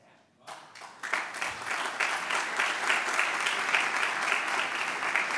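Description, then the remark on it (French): An audience at a software presentation applauds the idea of linking blocks to custom fields. After a brief quiet moment the clapping swells quickly into a dense, steady roar of many hands that holds at full strength to the end. “L'idée de relier des blocs à des champs personnalisés a été applaudie.”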